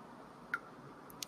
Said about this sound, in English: Excuse me, I got to take a drink of water.